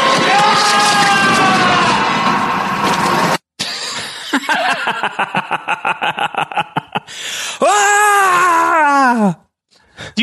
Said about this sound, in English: they just took his scream from last episode and added reverb onto it. They're uh, like, eh, "…, you don't need to do it again. We'll just we'll just loop it."